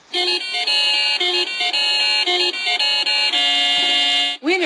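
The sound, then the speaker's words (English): A loud, bright celebratory bell jingle plays alone: rapid chiming tones ring out steadily for several seconds, ending with a quick swooping flourish. “So sound the winning bells.”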